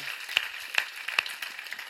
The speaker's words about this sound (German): Lasst uns unserem Gott mal eine richtig fette Standing Ovation geben. Kommt, come on.